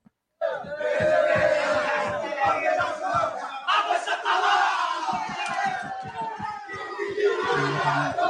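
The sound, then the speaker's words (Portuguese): A young team shouts and cheers together, celebrating in a locker room, a loud, continuous crowd of voices with rhythmic chanting and stomping beats underneath. “Molecada comemorando tá no né? vestiário.”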